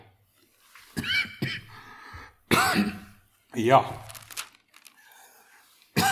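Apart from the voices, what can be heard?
coughing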